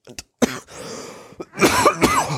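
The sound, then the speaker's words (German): A coughing fit: a quick cough, then a rough run of harsh, throaty coughs and throat clearing bursting out in succession, loud and with no talking. “Doch, ja, ich habe mich aufgrund ähm, des Hustenanfalls gerade äh, verlesen.”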